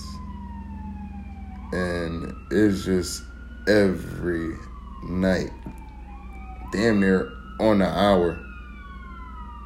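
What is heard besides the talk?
emergency vehicle sirens outside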